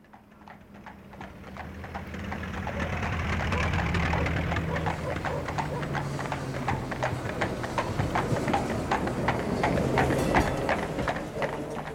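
A train rolls steadily along the rails through Finland in 1919, carrying Allan Wallenius, with a rhythmic clickety-clack of wheels over track joints, over a low rumbling drone that swells and holds at a constant level throughout.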